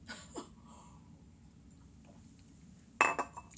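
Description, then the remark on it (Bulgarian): A coffee cup clinks sharply against a saucer with a short bright ring, after a couple of soft knocks and faint sipping sounds over a quiet low hum. No one speaks. “Една глътка кафе.”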